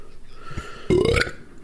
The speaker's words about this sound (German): es wäre mir aus verschiedensten Gründen wichtig, dass du doch nochmal rülpst, weil das ist, das ist so eine Potsau, ey.